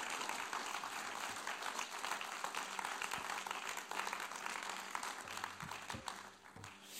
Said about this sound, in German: Geben wir noch einen herzlichen Applaus.